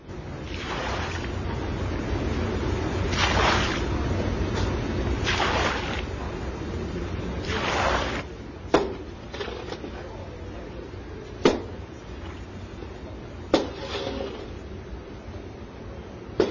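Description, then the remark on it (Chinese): Brine boils in eight big iron pots during traditional well-salt making in Zigong, China, with a steady, rushing hiss and low rumble, surging in loud swells for several seconds, then settling as a few sharp knocks ring out at intervals. “这就是现场古老的制盐声，在我的眼前有八口大锅正冒着热气，里面就煮着白花花的卤水，从卤水中提取出来的结晶体就是我们吃的食盐。”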